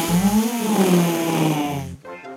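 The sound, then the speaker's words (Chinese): A loud, drawn-out fart sound effect: a raspy, buzzing blast lasting about two seconds, its low pitch wobbling up and down before it cuts off abruptly. “皮皮放屁了，好大的一个响屁啊！”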